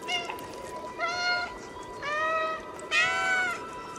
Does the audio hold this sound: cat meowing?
yes